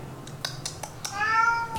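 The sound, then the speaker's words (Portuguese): A cat gives a single short, rising meow, preceded by a few sharp clicking taps, with no talking. “Meu gato querendo participar do programa, mas é sempre assim.”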